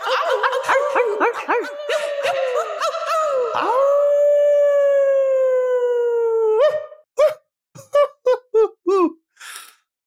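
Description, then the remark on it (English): A person imitates a coyote, loud: quick yipping cries lead into one long, sustained wavering howl, then a final burst of short, sharp yaps. “I'm Coyote.”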